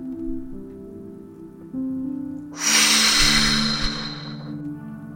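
A single long, breathy exhale through the mouth as part of a breathing exercise, fairly loud, lasting about two seconds over soft, steady background music, with no one speaking.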